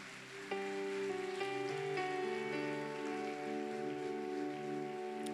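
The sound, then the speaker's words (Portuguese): Applause for standing church members: a steady wash of crowd applause, a dense crackling patter, continues under sustained keyboard chords that change a few times early on. Nobody speaks. “Vamos dar uma salva de palmas para esses irmãos.”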